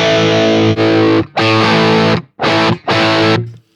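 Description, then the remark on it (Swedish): Heavily distorted electric guitar through an amp switched from the Greenback 30 to the Van Halen setting with JBL plays four loud, sustained chords separated by short gaps, with a bright, fizzy high-end crunch and a brief ringing tail at the end. “Eh, en annan grej, nu kan vi gå ner till den här, eh, när vi ändå har den här eh, switchen i min hand, eh, då kan vi gå ner från greenback 30. Eh, 30. till Van Halen inställningen med JBL.”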